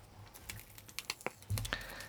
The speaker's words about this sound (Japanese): やっぱ洗剤とかはさほら漏れがちだからさテープで厳重に包まれているので開けます